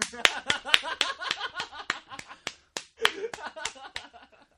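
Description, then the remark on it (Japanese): A quick run of hand claps, about four per second for a few seconds, loud, with a voice or laughter faintly mixed underneath before the clapping trails off; clapping in praise of the anti-diarrhea medicine Stopper. “それよりその、ね、もう重症の下痢をたかが5分でピタッと止めてくれるそのストッパー大先生に拍手を送りたい。”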